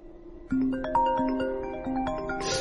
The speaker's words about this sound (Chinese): 这是李明的手机铃声，顺着声音寻过去，竟然发现他的手机在床底下。